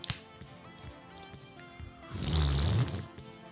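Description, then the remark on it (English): A loud hissing slurp made intentionally with the mouth, lasting about a second, imitating drinking from a quiet can of Game Fuel, preceded by a few faint clicks and rustles. “You have to intentionally make that sound when you drink game fuel, by the way, because it is a very quiet can.”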